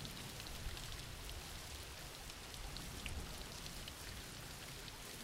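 Steady rain falls continuously in a dense, even hiss, with scattered droplet patter across the texture and no voices, holding a constant moderate level throughout.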